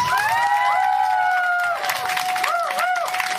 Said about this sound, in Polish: Przywitajcie go gorącymi brawami. Dzięki niemu można powiedzieć, że ta impreza i to nagranie ma rangę międzynarodową, bo przyjechał do nas z Białego Stoku. Wielkie brawa!